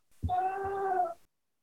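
A dog lets out one drawn-out, whining vocal sound lasting about a second, clear, with silence after and no one talking.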